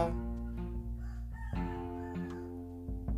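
A rooster crows loudly, one long strained cock-a-doodle-doo with a wavering, harmonic-rich tone that fills the whole moment, with no talking over it.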